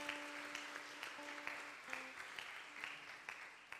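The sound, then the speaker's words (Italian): A church audience applauds together in thanks to God during a service, with dense steady clapping and a held organ or keyboard tone sounding softly underneath. “Facciamo un applauso al nostro Dio di ringraziamento per la sua presenza in mezzo a noi.”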